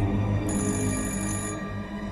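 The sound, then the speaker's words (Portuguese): A telephone rings once, a bright shrill trill lasting about a second, heard clearly over a steady low hum that continues after the ring stops. “O telefone toca.”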